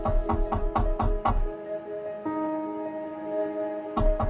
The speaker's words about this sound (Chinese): 这个时候，敲门声响起。